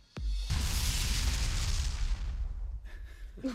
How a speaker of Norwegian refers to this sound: Wow. Avsluttet med en eksplosjon, den låta, gitt.